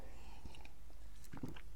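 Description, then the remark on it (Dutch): Someone in Israel takes a quick sip of water, with soft wet mouth sounds and a faint swallow, ending in a small click against a quiet background. “Even een slokje water.”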